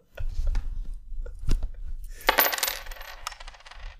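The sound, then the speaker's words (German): Coins jingle and clink together in a pocket, with a few scattered metallic taps building into a brighter rattling shuffle midway before settling; no one speaks. “Oh, ich habe Geld in der Tasche.”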